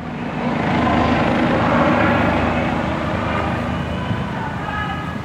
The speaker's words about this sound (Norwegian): Plutselig kommer det et helikopter susende over plassen.